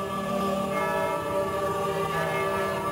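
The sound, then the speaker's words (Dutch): Church bells ringing steadily on the Mattenisselaan, their overlapping tones blending into a dense, sustained clang that stays fairly loud throughout, with no voices. “We horen de kerkklokken luiden.”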